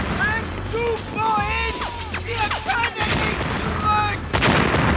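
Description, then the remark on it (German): A dense, continuous barrage of rocket and gun fire starting up again, with whistling streaks sliding up and down over sharp cracks, heavy booms and a constant low rumble, loud throughout. “Das Raketenfeuer beginnt wieder.”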